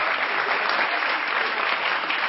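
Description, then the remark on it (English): Steady audience applause, a dense wash of many hands clapping at once, fairly loud and even throughout with no voices standing out. “So let's give them one more round of applause and thank them for all their work.”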